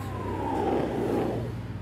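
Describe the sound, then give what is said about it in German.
A car driven by a show-off driver roars past on the street, engine revving loudly as it accelerates by, its pitch rising and then falling away over a couple of seconds. “Es fahren hier auch wieder ein paar so Profilierungsfahrer entlang.”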